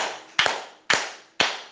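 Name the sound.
audience clapping hands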